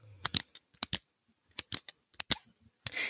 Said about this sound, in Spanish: Entonces, normalmente, como yo grabo en mi escritorio, ¿qué agarraba? Lápices, pinches, labiales, espejos, elige. lo, que, se escuchaba más era el lápiz. Que hacía esto.